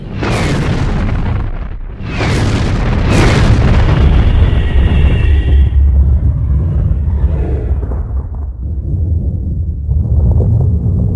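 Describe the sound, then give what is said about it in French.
A huge cinematic explosion effect depicting the Big Bang: three deep, roaring blasts in quick succession, then a long rolling low rumble that slowly dies away. Loud, with no voices. “Où commence la ligne Dans ce que vous avez appelé le Big Bang.”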